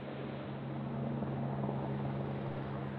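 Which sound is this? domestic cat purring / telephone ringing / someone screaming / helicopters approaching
helicopters approaching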